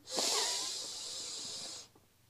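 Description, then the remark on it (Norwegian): A deep, steady breath drawn in through the nose as part of a breathing exercise before sleep, an airy hiss lasting nearly two seconds before cutting off into quiet. No one speaks. “Da starter du med å puste godt inn gjennom nesa,”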